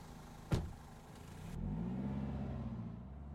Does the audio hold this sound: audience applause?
no